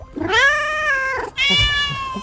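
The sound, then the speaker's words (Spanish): A cat meows twice, loud: a long, drawn-out yowl followed by a slightly higher, shorter meow after a brief pause, with no other voices. “Vamos, lindo gatito, dejemos el caldero a fuego lento y vayamos a agazar algún pitufo.”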